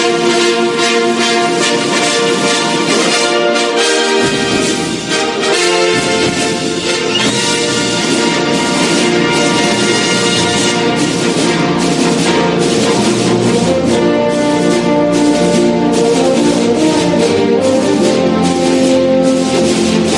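Loud, full orchestral fanfare music plays for the whole stretch, with bold sustained brass-like chords and a swelling, triumphant feel. There is no talking.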